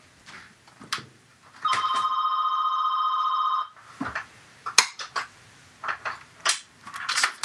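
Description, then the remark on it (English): A telephone rings with an incoming call from an agent, a steady electronic tone for about two seconds, surrounded by clicks and handling noises, with no voices present. “Uh, let me turn off the phone here quick.”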